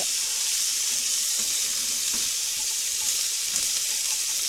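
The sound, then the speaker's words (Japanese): Spare ribs sizzle steadily in a pan after juice has been poured in and they are turned with tongs, a dense, bright crackling hiss that stays loud and even throughout with small pops scattered through it; no one speaks. “さあジュース入れてまいりましたのでストンクでひっくりあいい匂いする”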